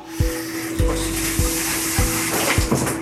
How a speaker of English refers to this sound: Okay, so I am in the in the shower.